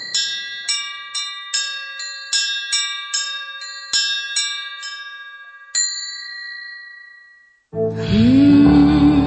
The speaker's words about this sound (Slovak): Musí mať zvonkár hudobný sluch? Ako sa dá zvonkohra naladiť? Zvončeky, kto vám dal ten hlas?